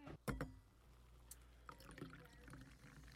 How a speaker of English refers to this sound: So I don't have much experience with pouring sparkling wine because this is Arizona, yeah.